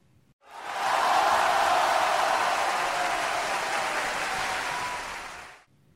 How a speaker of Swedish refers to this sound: Plötsligt hörs ett vrål inifrån arenan.